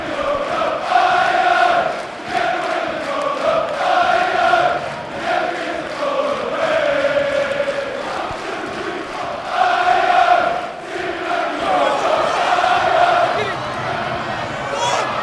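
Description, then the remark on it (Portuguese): A large crowd of Chelsea football fans sings a tribute chant to Bakayoko, the French midfielder who scored the goal, in unison, loud and sustained, with a repeating melodic phrase and brief dips between lines over a constant roar of voices. “É a música em homenagem ao Bakayoko, que fez o gol o meia francês,”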